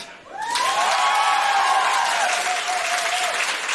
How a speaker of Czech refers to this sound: Přesně tenhle aplaus